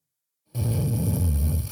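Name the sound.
person snoring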